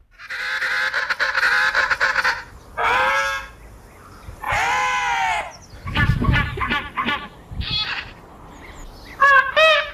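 Penguin calls ring out: loud, harsh braying and honking bursts, several in a row with short pauses, some quick stuttering cries mixed in, and no one talking.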